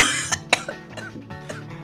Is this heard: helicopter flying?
no